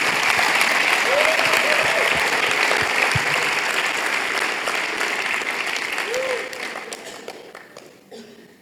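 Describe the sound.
A crowd applauds steadily in a dense, loud wash of clapping, with a few faint voices underneath, before the applause thins out and fades toward the end.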